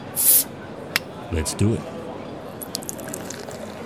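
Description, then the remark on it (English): A short fizzy hiss of a bottle being opened, followed by a few clinks and faint splashing drips of liquid being poured, with a man briefly speaking over it. “Sit back, relax, pop a bottle.”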